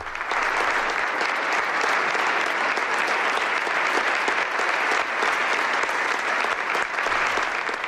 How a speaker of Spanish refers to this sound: Y en, este momento, efectivamente, acaba de tomar posesión de la diócesis de Solsona, Monseñor Francisco Conesa. Nos unimos desde Radio María a este gran aplauso y damos la bienvenida a su nuevo pastor, allí en Solsona, Monseñor Francisco Conesa.